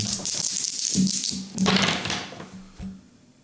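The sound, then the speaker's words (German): A die is rolled across a hard surface for a perception check: a quick flurry of sharp clicks and clatters that builds, then trails off into a few scattered taps, with no voices. “Wohin hast du gewürfelt?”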